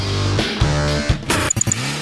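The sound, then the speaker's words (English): Car engines rev and rumble in a busy, congested jam, with the pitch rising and falling, a burst of noise, and a few quick high beeps near the end. Nobody speaks. “See? It's a traffic jam.”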